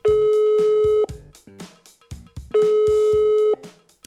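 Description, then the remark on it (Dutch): Two long, steady ringback tones from an outgoing phone call to an innovation strategist, each about a second long and separated by a pause, loud, with softer musical sounds filling the gap between rings. “Even met haar bellen om te toetsen of dat idee van Filip wat voor de sociale advocatuur is.”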